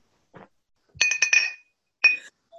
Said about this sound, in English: Yeah, you're chinking bottles and glasses. I like it.